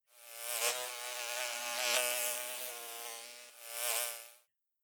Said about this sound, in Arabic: أرى نحلة تقترب من النافذة. أسمع طنينها عاليا